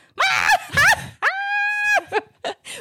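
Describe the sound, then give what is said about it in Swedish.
A voice imitates a woman's shocked shriek, screaming instead of laughing: two quick wavering yelps, then one long, steady high-pitched scream, trailing into a few short breathy laugh-like bursts. It is loud, with no other sound. “Och bara Fast det är typ som ett skrikskratt”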